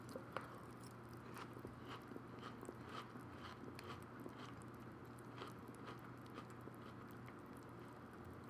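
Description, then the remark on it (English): Wet chewing of breakfast soup, eaten by the spoonful from a heaping bowl, a steady run of soft smacking and squishy bites repeating about twice a second, with a low hum in the background and no talking. “This is some great breakfast soup.”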